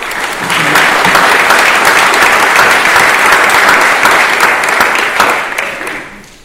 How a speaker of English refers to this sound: So let's give a big hand to our panel, and then we'll hear first.